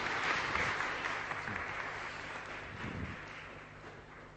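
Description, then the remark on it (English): Sustained applause from an audience welcoming a speaker, a dense, steady clatter of many hands clapping that tapers slightly toward the end, with no speech over it. “So let's just give him a warm, warm welcome.”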